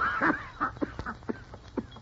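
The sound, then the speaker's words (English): A man coughs in a rapid series of short, harsh, hacking bursts, about half a dozen in two seconds, fairly loud with no talking. “How long have you had that cough, Fortunato?”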